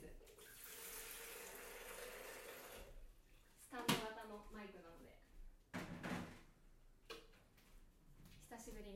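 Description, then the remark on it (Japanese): A kitchen tap runs steadily for a few seconds, filling a pot with water to boil for pasta, then stops, followed by a few sharp metallic clanks and bumps, with a faint voice in the background; recorded from a little distance, not with a chest microphone. “話に夢中になりましたお湯を沸かしてきますパスタですからねちょっと待っててください今回は胸元についてるマイクではないんです”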